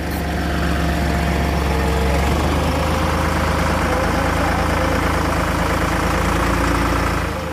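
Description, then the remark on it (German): A forklift engine runs steadily, a loud low idling rumble with a faint knocking pulse that holds throughout, with no break or change in pace, as it loads an East German-made emergency power generator onto a truck in Dithmarschen. “Mit einem Gabelstapler wurde das Gerät aus DDR-Produktion auf den LKW geladen.”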